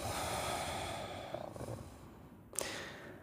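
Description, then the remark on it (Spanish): A long, slow breath is let out through the nose during a guided breathing exercise, a soft airy rush that gradually fades, followed by a brief sharper puff of air near the end. “Exhalamos.”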